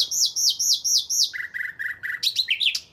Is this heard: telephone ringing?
no